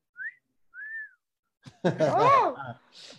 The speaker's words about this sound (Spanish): Hasta, hasta tengo chiflidos para ti preparados, ¿eh? Ahí te va, espérame. Ahí te va.